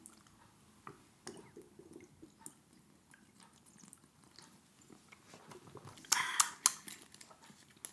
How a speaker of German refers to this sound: Die Schmatzgeräusche sind immer ganz besonders ähm, beliebt, habe ich mal sagen lassen.